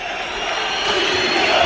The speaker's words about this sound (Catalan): I aquesta és la reacció, crits en contra de la directiva i xiulets eh, generalitzats de tot l'estadi